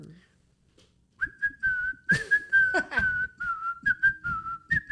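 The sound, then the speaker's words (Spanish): A person whistles a short, steady tune from the film Kill Bill, imitating a man who whistled a lot while working in a mine; the clear tone holds nearly level with small pitch steps for a few seconds, with faint breathy bursts and murmurs underneath. “Y lo que hacía el vato, eh, el güey chiflaba mucho en la mina, güey.”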